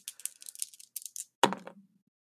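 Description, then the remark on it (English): Dice rattle in a quick burst of light clicks as they are shaken for a roll in a game, then land with a sharp clatter that tumbles and settles within about half a second, showing a nine. No voices are heard. “That is a nine on the dice plus one, so it is a ten go off.”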